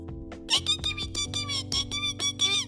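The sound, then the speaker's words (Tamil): A voice imitates the cry of a newly hatched parrot chick: a quick run of about eight shrill, squeaky chirps in an even rhythm, with a steady low hum underneath. “அப்படி கத்துறது எப்படி கத்துறது அப்படி கத்துறது”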